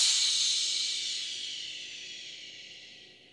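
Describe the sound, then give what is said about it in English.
A long, steady shushing exhale through the mouth, a voice imitating water running from a faucet during a breathing exercise, starting fairly loud and gradually fading over about three seconds, with no other sounds. “And then we're going to open the faucet and let the water come out and make a sound with our mouth like this. Shh.”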